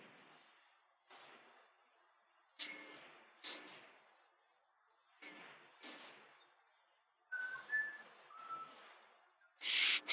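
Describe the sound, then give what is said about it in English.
A faint, distant whistle from the back of a cave sounds as a couple of short, thin tones partway through, set among irregular bursts of hissy, echoing noise and a few sharp knocks. No one speaks. “But I'm going to play the the whistle for you.”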